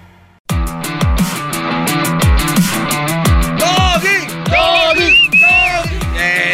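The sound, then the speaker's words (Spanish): Sliding, high-pitched whistles aimed at a person come in partway through, rising and falling over a loud, steady drum beat and music that plays throughout. “no le chiflen así al gran maestro.”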